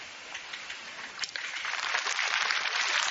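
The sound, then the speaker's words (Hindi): An audience at a satsang (spiritual discourse gathering) claps, a dense crackle of many hands that swells steadily louder over a few seconds and keeps going without a break, with no voices on top. “बस तालियां जाना नहीं बजाओ ये ऊंची बात सुनो”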